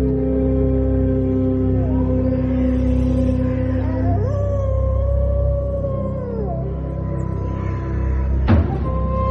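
Several long, overlapping wolf howls, with steady sustained tones that slide up and down in pitch, fairly loud over a low rumble, ending with a brief sharp knock.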